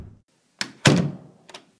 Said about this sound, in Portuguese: A campainha toca. Atenda, por favor, Alfred. O mordomo abre a porta e Camilo entra.